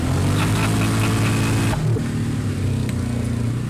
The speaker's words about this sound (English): that bang you just heard is my head hitting the roll bar. On my helmet, anyways.